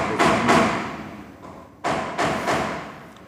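Hammering: about five sharp, ringing blows in two uneven bursts, two strikes, a pause, then three more, each loud and trailing off briefly, with no voices.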